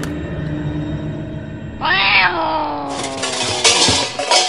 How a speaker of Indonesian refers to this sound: Eh alah, kucing garong.